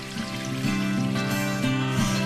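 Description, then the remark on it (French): Water flows and trickles steadily in a village in Ardèche, France, a continuous rushing wash with a faint resonant hum beneath it, as if echoing in a stone channel; nobody speaks. “Donc on arrive au bourg de d'Henri, ah, où ça coule de nouveau.”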